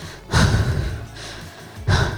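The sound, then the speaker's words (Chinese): A voice imitates the heavy breathing someone made partway through watching a film at the cinema: loud, breathy inhales and exhales in a slow rhythm, two big surges with a quieter stretch between, no words spoken. “这样子出现这个很沉重的呼吸声。”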